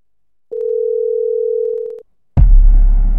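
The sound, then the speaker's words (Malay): A steady, mid-pitched phone line tone hums for about a second and a half as a call is ended, then cuts off; after a brief silence a sudden loud burst of rough, noisy rumble follows. “Rizal mematikan talian Sebaik saja mendengar perkabaran daripada ibunya”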